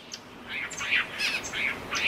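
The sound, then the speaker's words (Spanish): Various birds trill and chirp in a quick series of bright, repeated calls in a mountain forest in the highlands of Santa Cruz island, several overlapping phrases over a soft background hiss, with no one talking. “tengo el privilegio de escuchar diferente tipo de trinar de aves”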